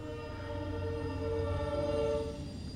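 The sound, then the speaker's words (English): A train rolls by the D and H Railroad Station on Bridge Street, its horn sounding a long, steady, multi-toned blast over a heavy low rumble, loud and continuous throughout with no voices. “So if you guys can't hear that, my my uh, plug for myself, I guess we're we're in my office, which is in the uh, D and H Railroad Station um, on Bridge Street.”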